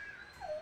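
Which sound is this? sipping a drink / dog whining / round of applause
dog whining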